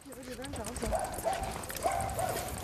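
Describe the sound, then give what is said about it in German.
Dogs bark in a few short, sharp bursts, mixed with people talking and a clattering, hoof-like rhythm in a busy outdoor setting. “Also was es hier auf jeden Fall viel gibt, sind Hunde.”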